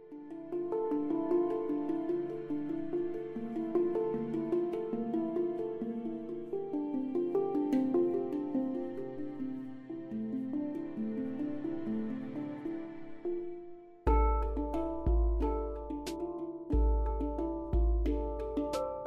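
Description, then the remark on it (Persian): Gentle piano meditation music plays alone in flowing, repeating note patterns, then shifts partway through to a fuller passage with deep, sustained bass notes; no clear waves or dolphin calls stand out. “Piano sounds of the sea and dolphins”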